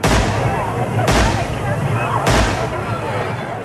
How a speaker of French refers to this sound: Trois coups de feu retentissent, le président s'effondre, Jackie Kennedy à ses côtés rampe sur le capot de la voiture qui repart en trombe.